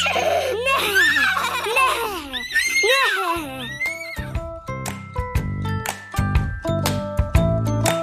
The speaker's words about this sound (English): As they scampered through the woods together, they heard the sound of distant horses.